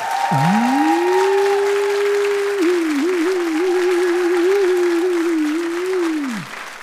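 Live audience applause for a butterfly meme during an applause-meter vote, a steady dense clapping for about six seconds, with a sustained low wavering tone, like a held voice or horn, riding over it before everything drops off at the end.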